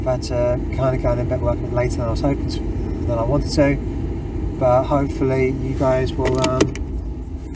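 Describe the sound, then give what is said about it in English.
Steady low rumble of a car interior on the move as a man drives to work, talking continuously over it, the road and engine drone constant throughout. “Um, if you hear the sat nav in the background it's because I'm driving to work.”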